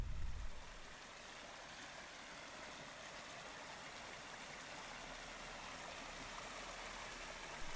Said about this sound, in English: I live in the city of Los Angeles, and like most people, the sounds that I hear on a daily basis are sirens and helicopters and motors and machines and music not sounds like this quietly running stream that I camp next to in the Sierras.